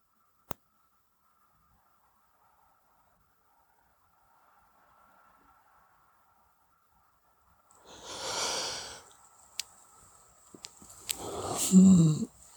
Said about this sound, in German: Ja, und ja, jetzt war gerade ein Gähnen, eine Entspannung.